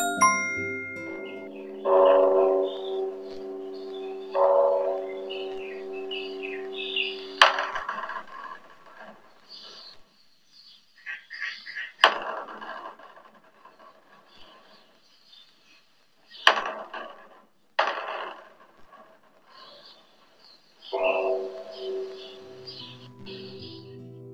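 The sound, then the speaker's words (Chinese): A daily temple wake-up alarm at Dongchan Buddhist College: resonant, ringing bell-like tones with long fading tails, interspersed with sharp wooden knocks at irregular intervals, with no talking. “这是每天叫醒我的闹钟。”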